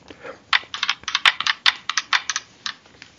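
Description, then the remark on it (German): A die clatters across a hard table in a quick, irregular run of sharp clicks and taps lasting a few seconds, with no voices. “würfel doch mal bitte. Mit dem Würfel finden wir raus, auf welcher Seite der Bildzeitung wir heute unser schändliches Werk”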